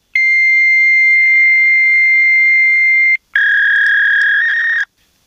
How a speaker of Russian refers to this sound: Вы можете отправить факс после звукового сигнала.